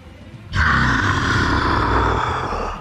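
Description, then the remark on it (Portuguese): A sudden, loud guttural roar from a creature in thick fog bursts in after a brief quiet moment and holds steady and rumbling for over two seconds, with no talking. “A plateia dos sorgolites vai de novo, diminuindo o volume, e vocês ouvem um berro cultural.”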